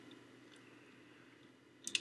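Someone bites and chews an apple: a stretch of quiet chewing, then a few sharp, crisp crunches near the end, with no talking.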